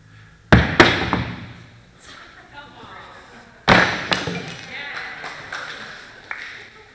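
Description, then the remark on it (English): A vase drops onto a hard floor twice, each time landing with a loud thud and a couple of smaller bouncing knocks, staying in one piece rather than shattering. “That was meant to break when it fell.”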